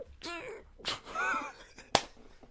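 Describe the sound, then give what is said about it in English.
A voice imitates a stifled, held-in sneeze: a couple of strained, breathy vocal build-ups, then one sharp, clipped burst, brief. “They basically hold it in like they're trying to hold in a fart”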